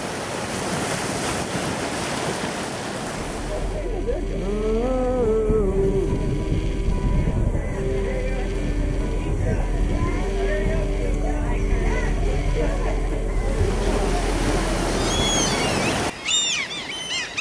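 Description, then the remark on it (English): Steady rush of water and wind buffeting the microphone while a boat moves across the Sea of Galilee, a low rumble underneath, faint voices in the background and a few brief bird chirps near the end. “And I wanted you to be able to experience that, just to get a taste of what it's like to be in the boat on the Sea of Galilee.”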